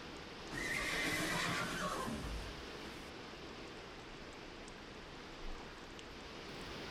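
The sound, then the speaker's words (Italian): A horse lets out a loud, drawn-out whinny lasting over a second, followed by a steady rushing background and a faint single stamp of a hoof; nobody speaks. “Vede un cavallo scalpitante.”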